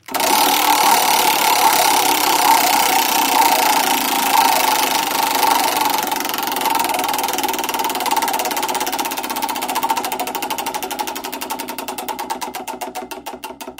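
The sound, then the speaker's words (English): A prize wheel, spun to pick a giveaway winner, spins with a loud, rapid rattle of clicks that gradually slows into distinct, spaced-out ticks as it winds down, with no talking. “Alrighty, so for the Hold That House winner, let's go ahead and spin the wheel again.”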